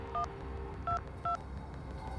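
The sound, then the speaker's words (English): Three short telephone keypad tones beep one after another as 911 is dialed on a phone, with a slightly longer pause after the first, over a low steady background hum. There is no talking. “She froze for only the briefest of moments before picking up the nearest phone. In a daze, she called 911.”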